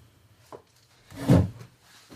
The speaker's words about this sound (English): Keep it in the plastic thing, and I'll, uh, you know, I'll just keep it in this drawer here, so no one, so it doesn't get damaged.